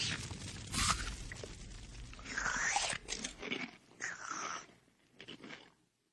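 Crunchy chewing and biting noises in irregular bursts as a father and his daughter eat dinner, moderately loud with no talking, tapering off into quiet at the end.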